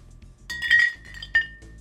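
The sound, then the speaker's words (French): Glasses of beer clink together in a toast among four people, a bright ringing chime followed moments later by a second, sharper clink, clear with no talking. “Hey, attends, attends, attends, t'es rendu au cheers? Ben ouais, on est quatre.”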